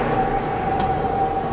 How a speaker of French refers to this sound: Non, ce n'est que le vent qui se lève.